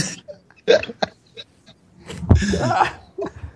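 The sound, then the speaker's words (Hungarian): A microphone gets knocked over with a loud thump and a burst of rustling handling noise, set among short breathy bursts of laughter and gasps. “nem szabad vicceseket mondani, mert rögünk, akkor felborul a mikrofon.”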